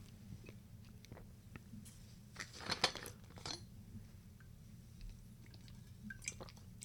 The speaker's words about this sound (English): Quick sip of water, boss. Don't mind me, boss.